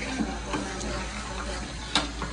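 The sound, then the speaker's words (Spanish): Butter boiling and sizzling in a pan, turning a darker colour, while a utensil stirs it, with a few soft scraping clicks and one sharper knock near the end; steady, no talking. “Y aquí seguimos moviendo la mantequilla. Ya está tomando un color más oscurito y sigue hirviendo.”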